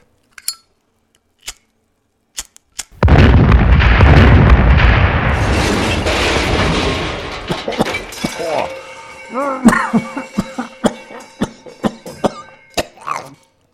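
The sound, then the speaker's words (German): A few lighter clicks, then a sudden loud whooshing explosion from flambéing cognac-soaked steak that roars for several seconds and slowly dies down, followed by coughing and shaken voices. “Papa, bei denen im Radio hat das aber nicht so laut geknallt.”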